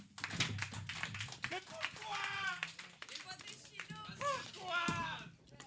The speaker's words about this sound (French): Mais applaudissez-vous parce que vous êtes beau. Tant qu'à le faire.